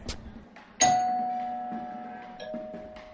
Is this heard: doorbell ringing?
yes